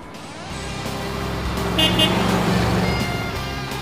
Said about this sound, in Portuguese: Aquele Volvo ali tá com o motor trabalhando, daqui a pouco vai pegar a estrada.